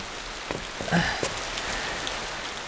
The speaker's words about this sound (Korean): 밖에 비 와요. 에? 어? 오, 어, 진짜네? 아, 좀 전까진 멀쩡했는데, 아, 비 안 왔는데? 아, 좋다, 빗소리.